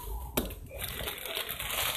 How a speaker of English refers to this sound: Just gonna drop the ramen in.